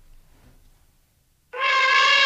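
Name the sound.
elephant trumpeting call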